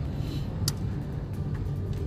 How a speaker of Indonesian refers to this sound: Ini lagi cuaca lagi mendung. Masih hujan rintik-rintik sih saat gue ngerekam podcast ini di dalam mobil.